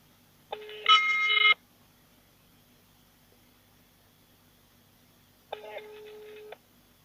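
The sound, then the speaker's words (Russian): A phone line rings out unanswered: two electronic ringback tones, each about a second long, separated by several seconds of near silence, with nobody picking up. “Номер не отвечает.”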